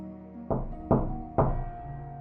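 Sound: knocking on a door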